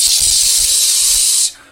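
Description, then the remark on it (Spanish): A loud, steady jet of pressurized steam hisses continuously for about a second and a half from a broken tube of half-brewed beer, with faint low rumbling beneath, then cuts off abruptly. “empieza a soltar un chorro descomunal. Ves que empieza a salir como un montón de, de vapor a presión.”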